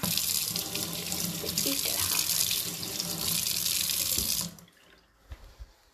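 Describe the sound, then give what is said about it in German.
A dishwasher being switched on and filling with water: a steady, loud rushing hiss for about four and a half seconds that cuts off abruptly, followed by a few soft thumps and a brief spoken word. “Ich muss den mal anmachen. Also den Geschirrspüler”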